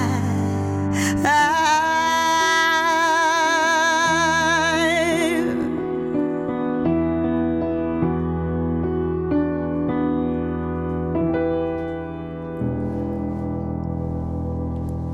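A voice sings live with wide vibrato over sustained piano chords, then the singing drops away and the piano keeps ringing on steady, resonant harmonies at an even, fairly loud level.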